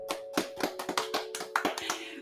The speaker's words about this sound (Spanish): Voy a dejar que ella se presente, pero antes un fuerte aplauso.